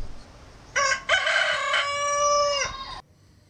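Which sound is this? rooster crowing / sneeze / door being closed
rooster crowing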